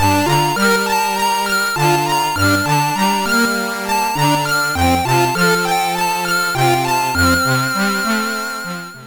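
An original video game music track plays loud and steady, with bright synthesized tones stepping through a quick melody over a pulsing bass line, and no voices at all.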